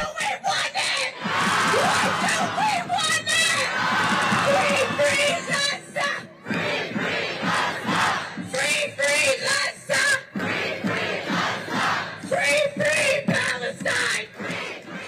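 A large crowd at a pro-Hamas rally in Washington, DC shouts and screams in loud, overlapping bursts, with rhythmic chanting rising and falling throughout, dense like a packed street rally.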